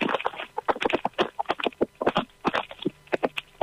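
nature, rain falling

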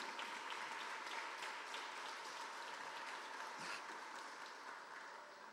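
crowd, audience applauding

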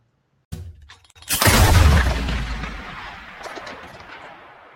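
sound effect, gunshot

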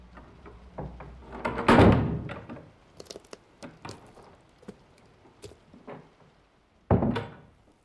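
household object, door slamming shut

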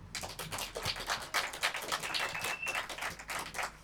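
crowd, applause

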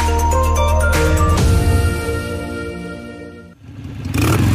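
vehicle, car engine revving

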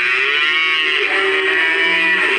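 animal, cow mooing

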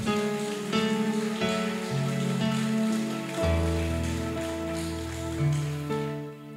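crowd, audience applauding

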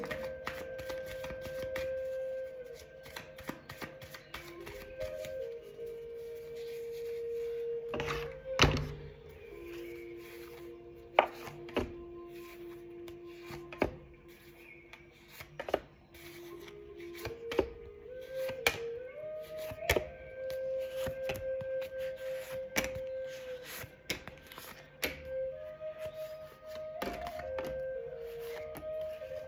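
household object, shuffling tarot cards

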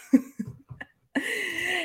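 human body sound, cough

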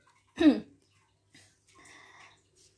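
human body sound, coughing

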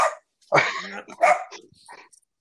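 animal, small dog barking

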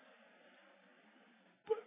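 human body sound, small child crying

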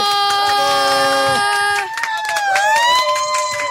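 crowd, audience applauding and cheering

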